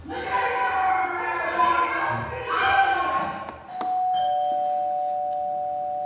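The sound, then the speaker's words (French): Overlapping shouting voices fill the first few seconds, then a sharp click sets off a doorbell at a house's front door that rings as one steady, sustained high tone until the end, the voices dropping away. “Alors, quand on sonne, les cris s'arrêtent.”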